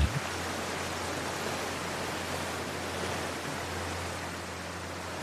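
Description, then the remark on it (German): A steady, broad roar of strong wind and sea waves, heard from a boat passing a river delta toward the open sea, dense and constant with a low rumble beneath, fairly loud, no voices. “Der Wind weht merklich stärker. Schließe für einen Augenblick die Augen und konzentriere dich auf die Bewegungen der Wellen.”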